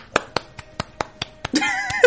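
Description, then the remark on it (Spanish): A small, brief round of applause: about eight sharp claps in a steady, even rhythm, moderately loud, with a short voiced sound joining in at the end. “un aplauso chiquito, se escucha.”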